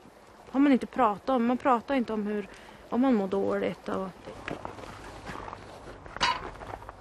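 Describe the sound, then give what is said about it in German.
A voice speaks for a few seconds, then gives way to slow footsteps of a woman walking to a grave, a handful of soft steps at a steady pace with one slightly louder scuff near the end. “Die letzten Schritte, die sind für sie immer die schwersten, weil sie nie weiß, wie nah ihr das traurige Schicksal ihrer Schwester”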